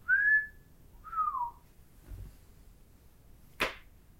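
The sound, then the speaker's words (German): Someone whistles two short tones, the second lower and sliding downward, followed by a soft low thud and then a sharp, brief swishing burst. No one speaks. “Und so pfeifen dann so, so.”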